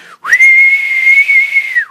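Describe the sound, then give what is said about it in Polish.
A person whistles a single sustained high note imitating the wind, rising in with a quick upward glide, holding steady for over a second, then sliding down at the end. “Wiatr to może najwyżej”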